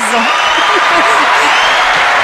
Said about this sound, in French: Génial c'est un, peu, la réaction des gens. C'est très long les applaudissements.